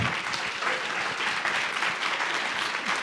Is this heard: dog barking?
no